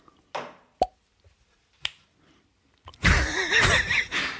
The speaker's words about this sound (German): Das ist die Dose, wenn ich so aufmache. Jetzt mache ich wieder zu. Auf.